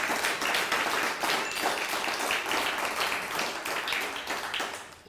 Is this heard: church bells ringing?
no